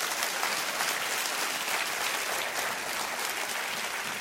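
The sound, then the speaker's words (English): An audience claps steadily and densely for several seconds in praise of God, a sustained wash of many hands applauding at even volume with no talking over it. “Come on, clap your hands and say, That's the God that I serve.”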